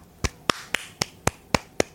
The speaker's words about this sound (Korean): 박수.